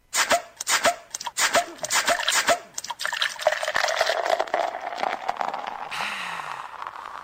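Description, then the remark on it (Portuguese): Ice-cold beer poured into a glass: a quick series of sharp clicks and taps, then a steady, fizzy gush of liquid whose pitch slowly shifts as the glass fills, with no talking. “Que tal agora a cerveja estupidamente gelada te esperando?”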